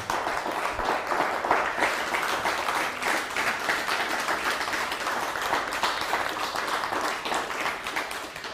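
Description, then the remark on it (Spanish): An audience applauds steadily for several seconds, giving a loud round of applause to Hashem (God), a dense wash of many hands clapping at an even, sustained loudness with no voices over it. “Bendito sea el Todopoderoso y ahora sí, dale un fuerte aplauso a Hashem.”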